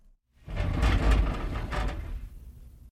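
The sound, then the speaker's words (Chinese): A sliding balcony door of a man's house rolls open with a continuous rumbling scrape, loud and grinding along its track for about two seconds before easing off. “正在他逗着院子里的黄狗玩耍的时候，男人阳台上的门开了。”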